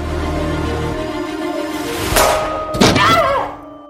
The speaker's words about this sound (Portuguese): E Karina atirou.